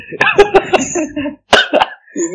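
A loud fit of coughing: a quick run of harsh, throaty coughs, a short pause, then two more rough coughs trailing into a voiced, strained breath.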